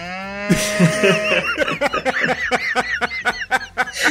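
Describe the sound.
A person does a low, drawn-out mooing imitation of a cow, fairly loud, quickly breaking into rapid bursts of laughter that continue to the end.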